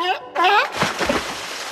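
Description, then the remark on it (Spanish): A short warbling, barking vocal call, like a voice imitating a seal, gives way to a bright water splash and brief sloshing as something plunges in. “En realidad soy una foca que ya se cansó de hablar y ahora vuelve al mar.”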